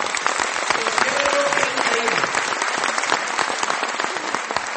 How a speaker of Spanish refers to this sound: Así que les un aplauso a ustedes por estar aquí, muchachos, porque de verdad.